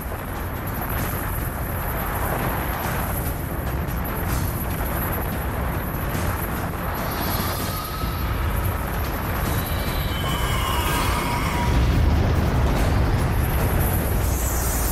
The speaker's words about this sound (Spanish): Una lluvia de meteoritos.